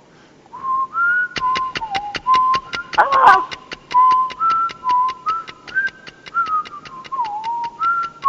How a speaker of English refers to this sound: I, re- I recognize that whistle tone. What is that?